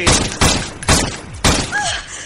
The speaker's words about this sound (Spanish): ¿Está muerto? Eso espero. Nadie sobrevive a cuatro balazos.